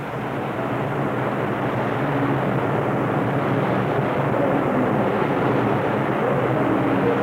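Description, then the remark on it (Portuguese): A heavy, steady roar of water gushing and pouring down from an iron lock gate that has just opened on the Tietê River, a loud, constant rushing wash with no pauses and no voices. “Esse barulho que vocês estão ouvindo é exatamente da água escorrendo da porta da inclusa que acabou de abrir para dar acesso a gente ao outro lado do rio.”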